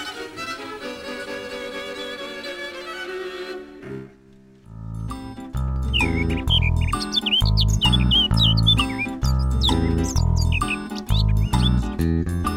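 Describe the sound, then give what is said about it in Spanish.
Quick, high chirps of birds on a wire flutter repeatedly over a loud, thumping rhythmic beat, following a few seconds of sustained tonal music and a brief lull, in an improvised radio drama. “Pájaros en el alambre.”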